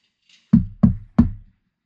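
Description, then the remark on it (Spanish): Three quick, firm, casual knocks on a car's side window, like knocking on a house door, loud, each with a short dull resonance, evenly spaced and with no other sounds around them. “Pero en eso sonó en la ventana de mi lado unos golpes como tocando en la puerta de alguna casa.”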